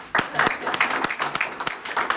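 An audience breaks into applause, a dense, steady patter of many hands clapping together at moderate volume, filling the short moment without pause.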